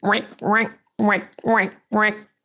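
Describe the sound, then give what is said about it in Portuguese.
A voice mimics a squeaky rubber toy egg with five loud, nasal squeaks that rise in pitch, a pair followed by three in a steady back-and-forth rhythm. “Então a gente foi brincar silenciosamente, mas o vai e vem do barulhinho do ovo que fazia um.”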